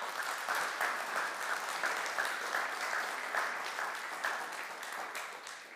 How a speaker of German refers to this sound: Gib der Leonie nochmal einen großen Applaus